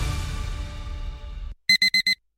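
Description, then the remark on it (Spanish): An alarm clock goes off with four quick, evenly spaced, loud electronic beeps, following a fading wash of noisy sound. “Pasarse al Seat León híbrido con Seat Flex es tan fácil como posponer la alarma.”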